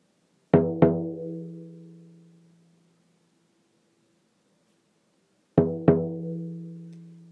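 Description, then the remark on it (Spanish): A deep, resonant drum is struck twice in quick succession, its low boom ringing out and slowly fading; after a few seconds of silence, another double beat sounds. “Escucha el sonido del tambor.”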